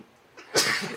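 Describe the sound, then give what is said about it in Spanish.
A single sharp sneeze bursts out after a brief inhaled buildup, loud and breathy with a hissing spray that trails off quickly. “Salud. Perdón.”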